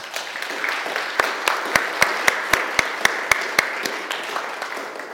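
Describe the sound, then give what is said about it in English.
An audience claps for a couple after a prayer of blessing, with a steady rhythm of sharp, loud, evenly spaced claps standing out over a dense wash of scattered applause that fades slightly toward the end. “And we'll give them a clap so that they can hear it.”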